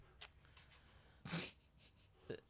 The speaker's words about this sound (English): our dog is being crazy.